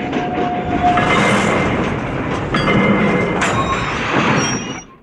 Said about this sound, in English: The train enters the tunnel from Cavendish's model, and suddenly we hear some metallic scratching sounds inside.